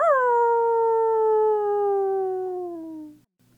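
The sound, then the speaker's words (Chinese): A single long howl of a big grey wolf, a strong harmonic tone that starts high and slowly slides downward for about three seconds before cutting off, with a low steady hum underneath. “狼的吼叫。”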